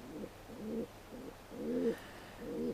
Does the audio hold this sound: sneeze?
no